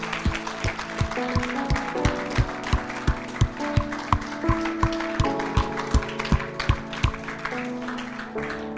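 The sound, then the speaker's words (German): A crowd clapping in a steady, even rhythm, sharp beats repeating about three times a second over sustained tones from music playing underneath. “Lasst uns der Person, die sich gerade entschieden hat, mit Jesus unterwegs zu sein, einen mächtigen Applaus geben.”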